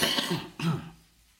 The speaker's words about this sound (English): Anyone that feels a need to cough in this service, you are entirely entitled to do so